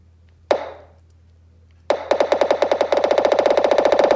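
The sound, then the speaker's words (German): Retro video game ball sound effects: one echoing hit rings out, then after a pause a rapid run of bouncing impacts speeds up into a fast, steady, reverberant patter. No voices. “Der Hall alleine. Der Hall des Balles.”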